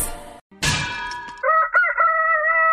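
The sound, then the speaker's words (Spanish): A loud rooster crows once in a long, wavering cock-a-doodle-doo, preceded by a sharp crack and a brief burst of noise, with no one speaking; a wake-up sound effect for the show of El genio Lucas. “Que no se le duerma el gallo.”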